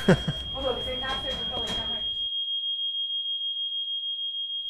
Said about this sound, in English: I was woken in the middle of the night by the hotel's fire alarm, which went on for ages and was the result of one of the guests smoking in his room.